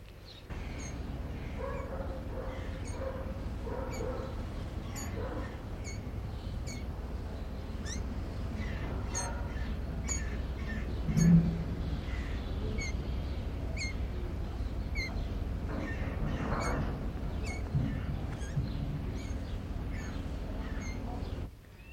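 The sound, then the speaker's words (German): A bottle-fed roe deer fawn gives repeated thin, high squeaks after its milk is taken away, faint and partly buried under a steady, noisy background rumble and hiss of other environmental sounds. No one speaks. “Sie haben also jetzt mehrmals ganz fein und dünn das Fiepen des Rehkitzes gehört.”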